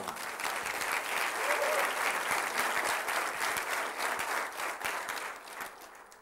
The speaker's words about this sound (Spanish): Dele un aplauso a Jesucristo.